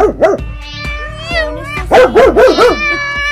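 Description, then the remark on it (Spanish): A happy female dog yips and barks excitedly, a quick pair of high, whiny barks followed by a rapid burst of several more, with whimpery tones in between. “No, está muy feliz la perra sí se pone contenta,”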